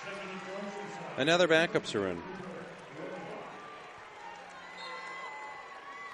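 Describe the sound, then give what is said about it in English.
Falmouth basketball fans cheer in a gym as their team's starters leave the game in the fourth quarter, a loud burst of shouting voices early on that fades into a steady crowd murmur, with an announcer talking over it. “That sound you hear is the Falmouth fans cheering because their starters are out of the ball game.”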